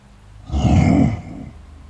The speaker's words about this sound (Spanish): Después gruñó y se acercó de un salto hacia mí.